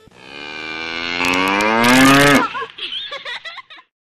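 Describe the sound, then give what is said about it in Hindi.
A cow lets out one long, loud moo that swells and rises in pitch for over two seconds, followed by a few shorter, softer grunting sounds before silence. “mann guy hai”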